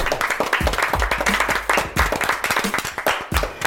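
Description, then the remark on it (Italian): An audience applauds everyone taking part in a Radio Sei Forte broadcast, many hands clapping in a dense, continuous patter that stays loud throughout, with a few slightly stronger bursts and no voices standing out. “Eh, facciamo un grandissimo applauso a tutti quanti, fatemelo sentire.”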